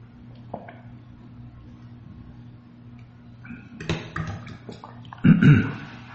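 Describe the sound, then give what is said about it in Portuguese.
Someone drinking water: after a quiet stretch with a low background hum, a few soft sips and gulping swallows come in short bursts toward the end. “Peraí, deixa eu tomar água.”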